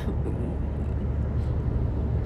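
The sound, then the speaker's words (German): Steady low rumble of a car cabin while driving on a sunny day, a constant engine and road drone filling the space without pauses or voices. “Ich sitze hier im Auto, habe ein nettes Gespräch”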